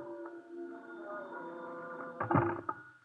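A telephone rings in an office with a steady, sustained tone for a few seconds, moderately loud, then a brief clattering burst near the end as if the receiver is picked up.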